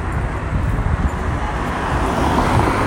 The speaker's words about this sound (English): here we are on Melrose trying to fight the traffic.